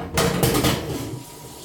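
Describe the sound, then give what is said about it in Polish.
A tap runs steadily as raw beef brisket on the bone is rinsed in the hands, alternately under warm and cold water, a continuous watery hiss with a few louder splashing surges near the start, then settling into an even flow. No one speaks. “na bieżąco pod ciepłą, pod zimną wodą, która pozbawia surowe mięso takiego charakterystycznego pistego zapachu i na powrót pod ciepłą.”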